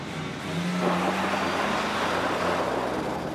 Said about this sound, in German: Und wir werden in die Ledersitze gedrückt, im Auto von Markus Meindl. Das ist einer, der den Motor schon mal aufheulen lässt